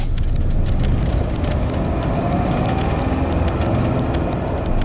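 A car driving to the Heelsum forest, heard from inside: a steady, loud low rumble of engine and road noise, with a rapid, regular ticking pulse riding on top throughout. No one speaks.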